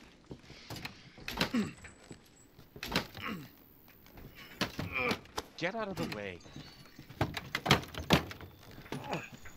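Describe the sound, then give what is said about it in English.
Someone jiggles and rattles a locked back door of a house that won't open, a few sharp clicks and thunks, mixed in with people talking over the attempts. “It's locked.”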